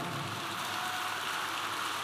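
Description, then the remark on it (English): A crowd puts their hands together in praise, clapping in a dense, steady patter that sounds almost like rain, holding at an even, moderate level throughout with no voices. “Are you clapping?”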